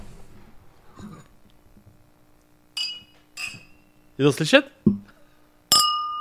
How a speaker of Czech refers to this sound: A ještě bych asi si ťuknul.